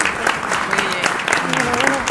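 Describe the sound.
A steady burst of applause, many hands clapping in a dense, crackling wash for about two seconds, with voices calling out faintly underneath.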